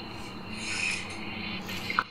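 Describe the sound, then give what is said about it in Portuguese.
A bunch of keys being handled and shaken, giving a continuous metallic rustle with bright, scratchy edges and a couple of sharper clinks near the end. No one speaks. “ah, meu Deus, aqui é muita chave, né? tem muita aqui.”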